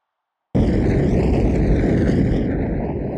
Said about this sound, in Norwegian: I samme sekundene så visste jeg at det var et snøskred. At vi sklei ned gjennom.